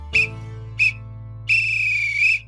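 A referee's whistle blows two short, sharp blasts followed by one long, shrill blast, loud, over a faint steady low hum.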